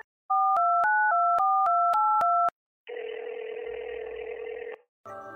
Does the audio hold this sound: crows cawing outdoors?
no